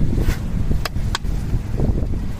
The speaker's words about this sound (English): And as I said, it's kind of windy out here today, which is usually windy by the beach.